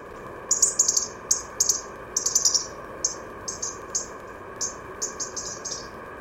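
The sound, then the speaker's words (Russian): A European robin gives a crackling call: a series of short, dry ticking bursts in irregular clusters, moderately loud, over a steady low background hum with no voices. “А вот это треск зарянки.”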